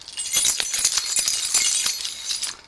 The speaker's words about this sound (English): That's new, new feature time. I just I just utilised some keys that I found in my pocket to make.